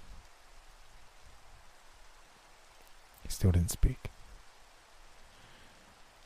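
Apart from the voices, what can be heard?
steady rain falling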